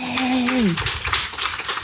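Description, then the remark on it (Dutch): A short falling tone gives way to a burst of audience applause for Gwen van Poorten, a dense wash of many hands clapping at steady loudness to the end. “Applaus voor Gwen van Poorten.”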